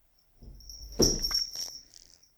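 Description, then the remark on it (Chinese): A cat jumps down from a washing machine, landing with one dull thump followed by a few softer knocks and rattles, while a steady high-pitched whine hums in the background. “是猫从是猫从洗衣机上跳下来的声音。”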